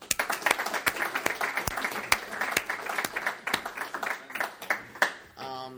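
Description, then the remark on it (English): An audience at an AA 12-step recovery meeting breaks into warm applause welcoming the series speaker, a dense, steady patter of many hands clapping at moderate volume for several seconds, with a voice starting to speak just as it winds down. “Can I get a warm welcome for him?”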